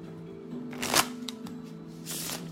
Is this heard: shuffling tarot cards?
yes